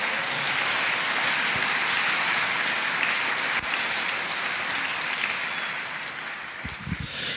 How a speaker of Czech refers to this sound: Haleluja. Amen. Můžete si zatleskat, přátelé.